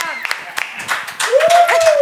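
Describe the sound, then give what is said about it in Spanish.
Scattered clapping from a small group of crew members behind the camera, irregular and fairly loud, with a sustained whoop or whistle-like voice rising over the second half. “Esos pendejos de atrás del lente, cabrón, aplaudan.”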